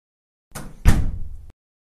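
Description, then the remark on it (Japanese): The scriptwriter Suzuno haughtily shuts a door: it swings and then slams shut with a heavy, booming, loud thud, followed by a brief rattling decay before sudden silence. No voices. “構成作家の鈴野は、いたけたかにドアを閉めた。”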